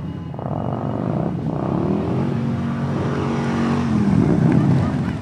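A steady roar of car engines as hundreds of cars drive past in heavy traffic around a group of pensioners protesting a road toll ring, with one engine's pitch dropping as it passes and the rumble continuing without pause.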